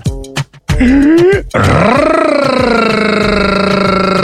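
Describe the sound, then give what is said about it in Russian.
A voice imitates a growl by pronouncing the letter R with a long rolled trill, starting with a few short vocal bursts, then settling into a sustained, loud rumbling trill that holds steady for several seconds. “И произнеси букву «Р», как будто ты рычишь.”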